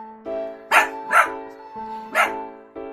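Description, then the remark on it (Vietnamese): A dog barks three times in quick, uneven succession, with two close together and one after a short pause, loud over a steady humming musical background. “hành động của chó vẫn chưa thể giải đáp hết được, tuy nhiên không thể phủ nhận chó là một người bạn rất trung thành với con người.”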